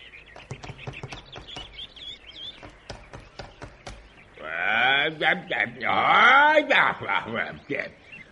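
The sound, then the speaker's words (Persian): A woodpecker pecks on a tree in a forest in the morning in a quick run of sharp taps for several seconds, then stops as a loud, strained voice takes over. “صبح که شد دارکوب کار هر روزش رو شروع کرد”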